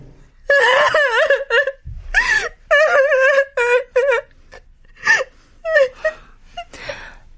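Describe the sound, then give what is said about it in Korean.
A woman crying and sobbing hard, with loud wavering wails broken into short bursts, sharp gasping breaths between them, trailing off into quieter, breathy sobs at the end. “다 울었어?”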